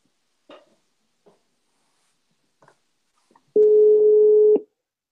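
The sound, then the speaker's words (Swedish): A few soft clicks and taps, then a single loud, steady telephone ringback tone lasting about a second before cutting off, heard while placing a phone call. No one speaks. “Vi ringer och kollar.”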